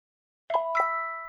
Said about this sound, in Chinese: 这不是我的铃声啊，是你们的吧？ 我们没带电话啊。诶，福奇，是从你口袋传出来的，该不会是丁丁博士给的那只手机在响吧？